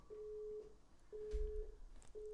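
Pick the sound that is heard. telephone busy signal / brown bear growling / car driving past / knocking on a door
telephone busy signal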